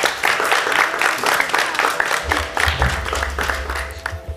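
A group applauds steadily as the next person is called up to sit down. It is a dense patter of many hands clapping at once that holds at an even, fairly loud level throughout, with a low rumble joining partway through.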